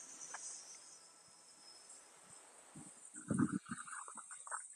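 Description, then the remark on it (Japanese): Cicadas drone steadily in woodland in summer, a thick, high-pitched wash that fills the whole stretch, with a few rustling knocks and clatters breaking in toward the end. “結構セミが鳴いてますね。”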